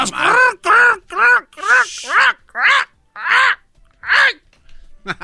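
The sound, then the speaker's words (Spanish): A person imitates crows with a string of about eight short, nasal caws in quick, uneven succession, loud, with a brief breathy hiss partway through. “Entonces, los cuervos ya agarraron el pedo, dicen, vamos a agarrar colillas de cigarro y nosotros lo traemos y nos dan comida.”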